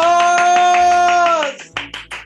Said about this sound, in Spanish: ¡Aplausos!